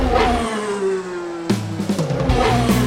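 A car engine revs hard and steadily, then drops and climbs again in a series of sharp throttle bursts, loud and close, with no voices.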